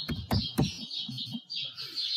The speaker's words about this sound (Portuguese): Os passarinhos. Estamos recebendo as visitas aqui no jardim, viu, pessoal? Uma visita que eu não tenho controle sobre ela.